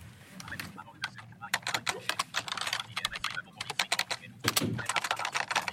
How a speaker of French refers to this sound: j'ai branché un clavier AZERTY, euh, clavier standard